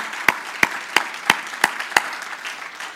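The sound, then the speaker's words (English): A church audience claps hands to the Lord in unison, six sharp, evenly spaced claps at a steady quick beat, then the rhythm dissolves into a softer, scattered wash of clapping and crowd noise. “Can you clap your hands to the Lord and say, Praise the Lord?”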